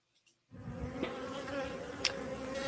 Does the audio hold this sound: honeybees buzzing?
yes